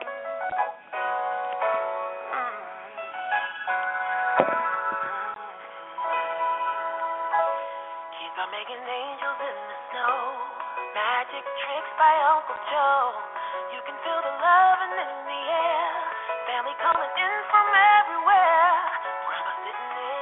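A song recording plays steadily, with layered melodic tones and what sounds like sung vocal lines over sustained instrumental chords, at an even, moderately loud level throughout with a slightly muffled, thin tone.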